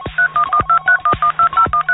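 A rapid, even series of about eleven short telephone keypad tones beeps out one after another as a phone number is dialed, loud, each dual-pitched beep separated by a brief gap, with faint clicks and no talking.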